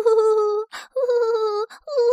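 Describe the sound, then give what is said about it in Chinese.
A voice imitates an owl's wailing cry: three long, steady, mid-pitched "oooo" wails, each held for most of a second, separated by short breathy gasps. “雾蒙蒙的森林里，突然传出了一个可怕的哭声”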